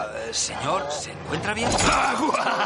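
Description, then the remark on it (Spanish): Someone on the other side of an opened door, with their back turned, panting heavily, ragged breaths mixed with strained, groaning vocal sounds that rise and fall for a few seconds without any clear words. “Al otro lado alguien jadea de espaldas.”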